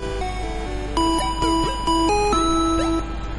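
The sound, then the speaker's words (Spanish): A short, cheerful Pokémon healing jingle, about 8 seconds long, that plays when your Pokémon are healed: a bright sequence of chiming electronic notes stepping up and down in a bouncy melody, ringing steadily with no voices over it. “Y cuando lo curabas sonaba la siguiente música. A ver si te suena. Eran nada más que 8 segundos de alegría porque tu equipo revivía y con toda la vida.”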